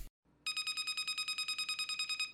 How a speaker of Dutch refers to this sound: want we hoorden de Samsung Smart Tag. Ook zo'n zoeklabeltje.